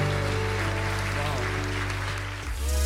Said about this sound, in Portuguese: Se você orou isso com fé, dá uma salva de palmas bem forte para Jesus onde você está.